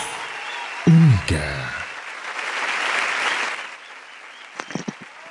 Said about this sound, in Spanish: Fuertes aplausos